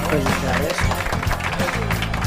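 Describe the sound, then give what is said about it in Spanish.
Steady applause, a dense crackle of many hands clapping throughout, with voices talking over it, applauding someone who has just become a mother. “¿Se aplaude a uno cuando es madre?”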